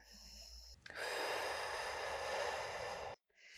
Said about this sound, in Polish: Spróbujmy sobie jeszcze raz. Czyli znowu ten wdech jest mhm. Klatka idzie do przodu, do góry, na boki, a wydech.